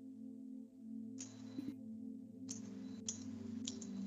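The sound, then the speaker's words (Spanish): A shop door bell jingles in a few short, bright bursts over a steady low hum, fairly quiet, with no one speaking. “Es el sonido de una campana como cuando abres una tienda.”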